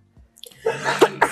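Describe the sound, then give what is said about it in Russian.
A single sneeze: a short breathy intake builds into a sharp, noisy burst, with a brief second puff right after. No talking. “Да, будь здоров.”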